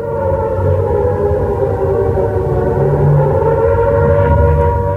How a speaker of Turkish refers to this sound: Şimdi kulağımıza çalınan ilk ses, Pearl Harbor'da demirli Amerikan donanmasına ait gemilere yapılan hava saldırısına ait.